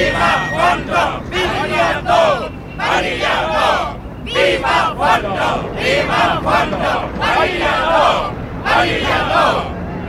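A large protest crowd at a demonstration shouts and chants in loud, rhythmic bursts, many voices rising together in repeated waves with brief dips between, dense for the whole stretch.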